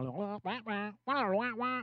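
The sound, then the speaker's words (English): A voice mimics a muffled, trombone-like adult voice in a string of nasal 'wah-wah' syllables, fairly loud, with a short pause midway and no real words. “Charlie Brown on the phone.”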